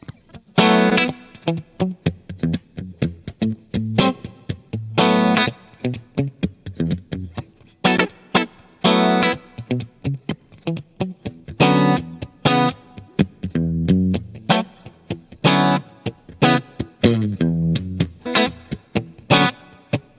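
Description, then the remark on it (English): A loose, improvised electric guitar groove plays alone for about twenty seconds, choppy rhythmic strums and bright chords washed in heavy reverb with a slightly distorted, effected tone. “Uh, I'll just groove on something. Hmm. let's see. There's a lot of reverb.”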